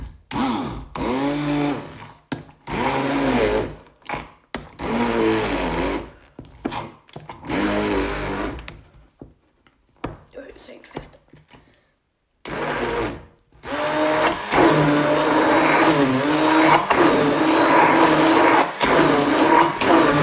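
A blender whirs loudly in several bursts, its motor pitch rising and straining as it purees a brown banana, with short pauses between pulses before a long continuous run at the end.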